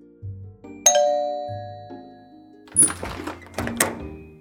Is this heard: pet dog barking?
no